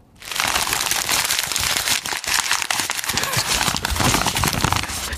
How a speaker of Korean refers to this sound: 다시 한번 종이 구기는 소리.